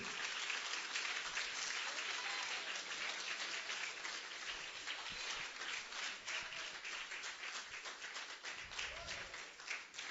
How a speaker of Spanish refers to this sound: Démosle un aplauso vuelta a Cristo en esta hora. Duro, duro.